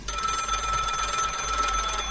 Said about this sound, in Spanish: El teléfono suena